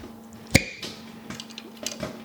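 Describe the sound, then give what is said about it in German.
Popcorn popping: one sharp, loud pop followed by a few softer, irregular pops over a steady low machine hum, with no talking. “Guck mal, hörst du es poppen?”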